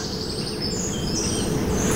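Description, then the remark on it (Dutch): A middle spotted woodpecker calls faintly in the distance, thin high notes drifting over a steady outdoor hiss with low rumble, no voices present. “En in de verte horen we een middelste bonte specht.”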